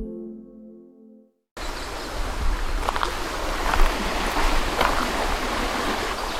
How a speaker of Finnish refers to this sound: Mutta tää kukkasjoki kohisee niin paljon, että täytyy hakea hieman hiljaisempaa kohtaa tämän varrelta. Tuossa on ihan sellainen pieni koski, jos sitä nyt koskeksi voi sanoa.